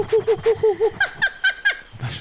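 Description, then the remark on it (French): Jungle ambience in the treetops, with brightly coloured parrots scattering and monkeys noisily chasing each other from branch to branch: a quick run of about ten hooting, whooping calls, followed by sharper, higher chirping cries, fairly loud, with no one talking. “Les rameurs observent craintivement le sommet des arbres où des perroquets aux couleurs chatoyantes s'égaillent, tandis que des singes se poursuivent bruyamment de branche en branche.”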